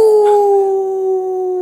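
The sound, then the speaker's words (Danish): A person imitates a wolf howl with a single long, steady, slightly falling tone, loud, with no talking over it. “…, kan vi starte med dit ulvebrøl?”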